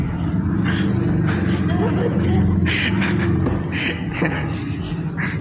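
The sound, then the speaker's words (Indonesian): A motorcycle engine drones steadily outside, a loud, continuous low rumble that holds for several seconds, with faint murmuring in the background. “ada suara motor anjing”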